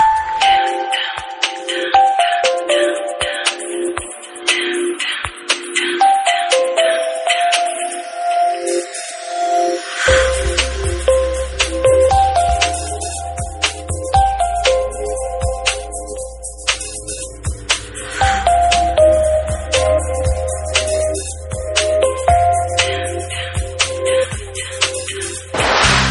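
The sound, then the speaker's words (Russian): A synthesized Samsung mobile phone ringtone plays a bright, bell-like melody of repeating chimes, joined midway by a deeper bass line and percussive beat, loud and continuous with no talking. “Строчкой выше рингтон, который для меня, как для человека, никогда с Samsung не пользовавшимся, штука совершенно диковинная.”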